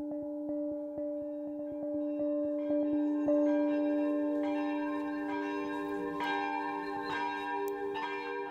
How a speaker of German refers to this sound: Die Glocken von St. Michaelis läuten zum Gottesdienst. Sie tun es nur einmal im Jahr.